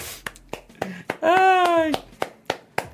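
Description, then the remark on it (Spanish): Sparse applause from a single pair of hands, acknowledging a 2,499-peso donation: about eight sharp, uneven claps spread out, with a short, sustained vocal cry rising over them midway. “Aplausos, aplausos.”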